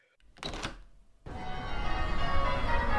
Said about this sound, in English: Ah, golden sunlight, heavenly bells.